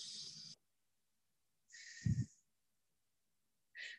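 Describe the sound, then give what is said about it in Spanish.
Three breathy bursts of air over about four seconds: a slow deep inhale and exhale, with the middle breath gusting more heavily, separated by silence and with no talking, as someone breathes deeply while repeating an affirmation. “Lo decimos una vez más porque lo repetimos tres veces siempre, respirando profundamente.”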